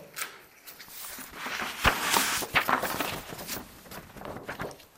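Crisp rustling and crinkling of a sheet of paper printed with only letters being handled, with irregular dry crackles and a few sharper snaps, moderately loud and with no voices.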